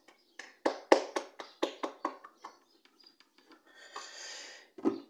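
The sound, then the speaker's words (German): A brief burst of hand claps from one or a few people, sharp and irregular, trailing off into scattered faint claps, then a soft breathy rush and one final clap. “Ich glaube, dafür hat es auch einen kleinen Applaus verdient.”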